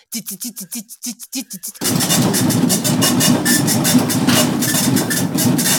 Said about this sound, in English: so you'd have this dot matrix printer go out and then i'd be like oh it's off i gotta go change my code again anyway i yeah. miss dot matrix printers